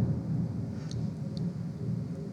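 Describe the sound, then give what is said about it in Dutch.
A low, heavy rumble of thunder rolls steadily through the whole stretch, deep and sustained rather than sharp, with no one speaking over it. “Zo, en nu een onweers bij?”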